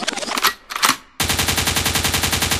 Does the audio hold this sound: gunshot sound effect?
yes